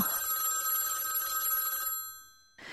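A telephone in a newspaper newsroom rings loudly and continuously in the morning for about two seconds, a bright metallic trill that fades out, then a second ring begins right after a brief pause.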